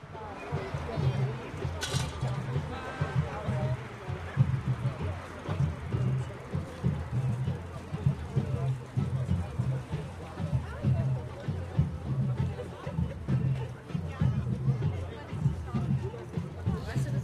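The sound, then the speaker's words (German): A large protest march moves south to north along the Wilhelmsburger Reichsstraße highway, a steady wash of overlapping voices and shuffling footsteps with a rhythmic pulse, while a faint hum of oncoming traffic lingers underneath. “Vielleicht sollte man, man hier äh, betonen, das, äh, das Besondere ist, dass man so wenig Autos hört, denn es ist eben auf der Wilhelmsburger Reichsstraße. Also man hört ein bisschen den Gegenverkehr.”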